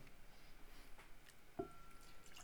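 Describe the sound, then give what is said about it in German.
A quiet, steady trickle of Heaven Hill whiskey poured into an empty glass, soft, with a single small clink or drip about two-thirds through and no voices. “ich habe auch ein leeres Glas. Mhm. Aber für mich bitte keine du Cola. Du magst noch einen Heaven Hill? Genau so, nicht anders.”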